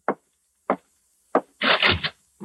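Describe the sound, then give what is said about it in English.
A door being opened: three short, evenly spaced wooden clunks, then a longer rough scraping rattle and one final soft knock, with no voices. “Open the door. Go on, open it.”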